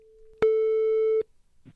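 A single steady electronic ringback tone heard on an outgoing prank phone call, with the caller pretending to be the father of the call recipient's girlfriend; one loud sustained beep lasting under a second, with a faint hum before it and a soft click after.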